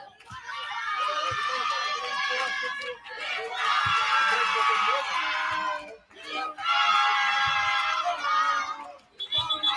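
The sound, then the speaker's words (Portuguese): A large crowd of Espera football fans roars and chants continuously in a stadium during a match, loud and dense, swelling in long waves with brief dips between surges; many voices blend together with no single speaker standing out. “E a torcida do Espera é grande.”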